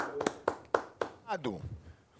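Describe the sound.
Four sharp, evenly spaced hand claps from an audience ring out in quick succession, applauding a dance performance in Qatar, followed by a voice speaking briefly with excitement.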